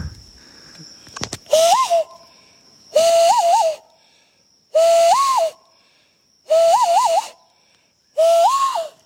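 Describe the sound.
A man whistles five times to call bats sitting in the treetops about 30 metres away, at a tropical rainforest site, each whistle a short, mid-pitched warbling note with a small rise and dip, repeated at an even pace over a steady background hiss.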